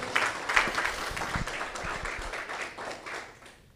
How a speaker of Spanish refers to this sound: Le damos una prenda de palmas al Señor.